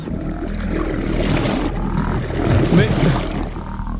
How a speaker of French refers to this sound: Quel est ce bruit j'entends comme un horrible grondement et des bruits d'eau. Quel est ce bruit J'entends comme un grondement sourd et des bruits d'eau.